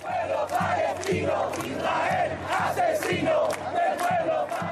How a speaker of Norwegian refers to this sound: Asesino! Asesino! Morder, morder, roper tusener av mennesker som har samlet seg foran den israelske ambassaden i Chiles hovedstad Santiago.